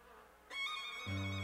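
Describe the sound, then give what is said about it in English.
Bees buzzing as they jump up into the air and fly away: a bright, steady droning hum starts abruptly after a short quiet pause, and a deeper buzzing tone joins it near the end. Fairly loud, with no voices. “The bees jumped up into the air and flew away.”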